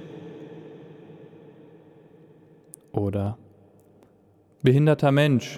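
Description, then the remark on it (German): A voice speaks short phrases inside a church, each one trailing off into a long reverberant echo that lingers and slowly fades before the next phrase. “So, wie ihr hört, sind wir jetzt in einem Kirchenraum.”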